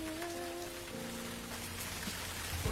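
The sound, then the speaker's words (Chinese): Gentle rain falls in a steady, soft hiss with no pauses, a faint low sustained tone humming underneath and no voices. “这里的雨是温柔的”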